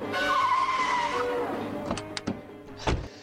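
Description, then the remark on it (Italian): The Batmobile rushes in with a loud, high tire screech that slides down in pitch and fades as the engine noise settles, followed by a few short, sharp bursts of noise. “Ma, cari, ma la, la, bat, la Batmobile qui.”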